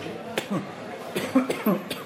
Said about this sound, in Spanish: tengo un resfriado y he tenido tos y me disculpo.